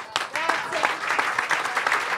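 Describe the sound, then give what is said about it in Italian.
An audience applauds steadily for the son's friend, a dense crackle of many hands clapping at once, fairly loud throughout, with a faint voice briefly audible underneath. “Farei in, un applauso al suo amico, all'amico del figlio.”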